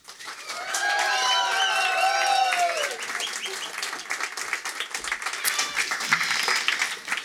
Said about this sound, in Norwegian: Han følte litt som jeg at det er jo mulig, selv om dere ikke er en hel bataljon, at dere kan juble enda litt mer hemningsløst når Torkil Damhaug kommer til scenen. Ta han godt imot.